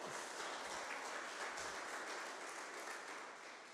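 audience applause

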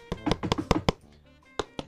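knocking on a door

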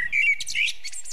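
eurasian blackbird singing

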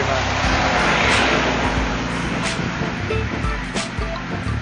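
tractor passing by

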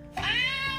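cat meowing

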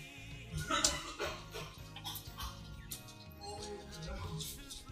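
puppy whimpering

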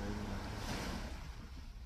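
ocean waves and surf

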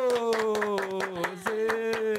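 clapping

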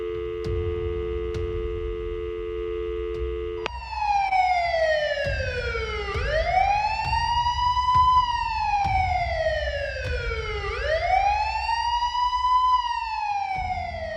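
police car siren

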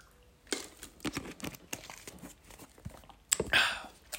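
sipping water

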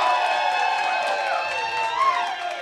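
audience applause and cheering

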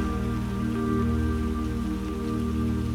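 rain falling

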